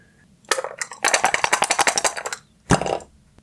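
Dice clatter across a hard surface in a quick rattling burst of clicks, followed by a shorter second tumble a moment later as two ones are rerolled in a dice game; fairly loud, with no talking.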